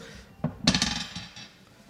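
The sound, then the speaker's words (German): A twenty-sided die clatters onto a table, rolled for a player and landing on 10: a light tap, a sharp clack, then a quick run of smaller rattling clicks that fade out within a second. “Ich würfel jetzt erstmal”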